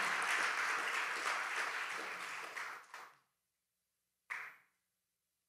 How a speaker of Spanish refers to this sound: Dale un aplauso al Señor y te puedes sentar.